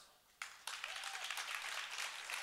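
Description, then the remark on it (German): An audience bursts into applause to vote on whether love is a feeling: a quick rise of dense, crackling handclaps that holds steady and fairly loud, many hands clapping together without any talking. “Wer ist meiner Meinung? Kleiner Applaus.”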